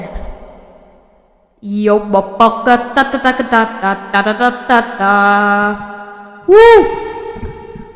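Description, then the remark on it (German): A voice sings and calls through a microphone connected to a mobile phone, with its echo effect switched on, each sound trailing off in repeating reverberant tails, fairly loud, ending in a rising and falling wail. “Und ich kann auch Echo einschalten.”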